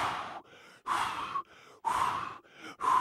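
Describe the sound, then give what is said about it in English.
A person mimics a sleeping partner's heavy, rapid breathing: four loud, raspy breaths in a steady rhythm, alternating with quieter in-breaths, with no talking. “I thought she was hyperventilating, and I was like,”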